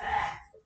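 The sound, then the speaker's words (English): One quick sneeze, a loud breathy burst that fades out within half a second, with no talking around it. “Ooh, bless you.”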